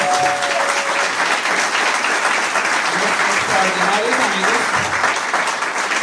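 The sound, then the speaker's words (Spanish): Sustained applause from an audience at an evening event, given for two founding members, fills the whole stretch, a dense steady clatter of many hands, with faint voices and cheers mixed in underneath. “Pero yo quiero que esta noche, que están con nosotros, les demos un fuertísimo aplauso”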